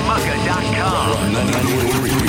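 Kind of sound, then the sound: vehicle, motorcycle engines revving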